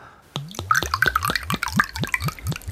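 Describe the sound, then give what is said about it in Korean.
Home-brewed ginseng liquor pours from a bottle into a glass in a quick run of about nine rhythmic glugs, each with a rising gurgle, fairly loud, with no talking. “인삼주 좋은 거에 내가 담았어. 아, 예, 그럼 한 잔만 받겠습니다.”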